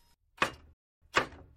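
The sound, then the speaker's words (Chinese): Two firm knocks on the door of a white photo studio in the deep mountains, spaced slowly about three-quarters of a second apart. Each is a sharp, full-bodied thump with a brief low resonance. No voices accompany them. “主人公终于找到了拍梦的照相馆，他抬起手来去敲门。”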